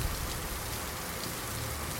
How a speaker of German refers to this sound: Das Wasser, das vom Himmel herabdrischt, ist genauso kalt wie das am Boden.